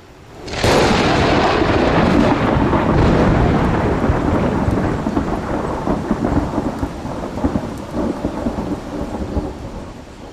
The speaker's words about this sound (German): There was a terrible storm coming up. Panama Mitte der 90er Jahre. Ein junger Wissenschaftler gerät im Regenwald in einen Tropensturm. Der Himmel verfinstert sich, der Wind pfeift und dann